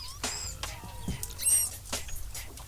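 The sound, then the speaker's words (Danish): Manatee (sea cow) calls: a series of short, high-pitched squeaks and chirps, several in quick succession, clear over a low, steady background rumble. “så her er der nogle søko lyde”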